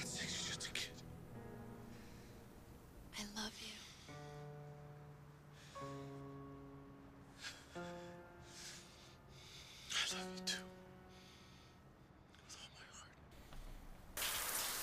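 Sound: shower water running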